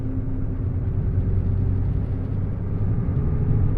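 A steady low rumble inside the JR West limited express Hida No. 14, a four-car train bound for Nagoya, running on the Takayama Main Line from Toyama to Inotani, with a constant hum and faint mechanical whir and no voices.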